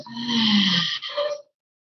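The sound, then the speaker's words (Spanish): A single forceful, panting exhale with the tongue out, loud, harsh and breathy with a throaty, growling edge, lasting about a second and a half before cutting to silence; done after a deep inhale in a breathing exercise. “Exhalo jadeo, libero lengua.”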